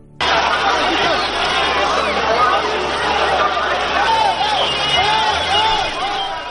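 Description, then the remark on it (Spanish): A dense crowd of protesters at the parliament in Tbilisi, Georgia, shouting and clamoring together as police begin firing water cannons, loud and continuous, with overlapping voices rising and falling over a steady low rumble. “Estos eran los gritos que se escuchaban cuando la policía comenzó a disparar los cañones de agua.”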